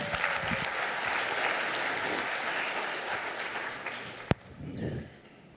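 A crowd applauds steadily, a dense wash of clapping from many hands that holds for several seconds, then a sharp single crack near the end as the clapping thins and fades out.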